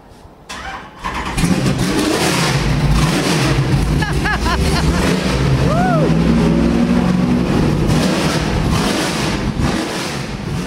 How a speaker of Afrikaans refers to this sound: maar hoekom maak hy so vreeslike lawaai? Hy het 'n uh, eh, baie baie kort uitlaatstelsel en dit het maar als met sy soos die Engelsman sê met sy performance te doen. Jy soek 'n goeie vloei met jou uitlaatgasse.